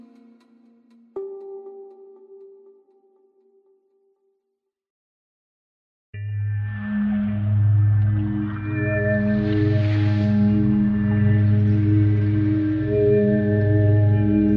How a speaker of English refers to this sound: one of the world's foremost sound recordists, Chris Watson, on a hunt for the song of the largest and possibly loudest animal that has ever lived.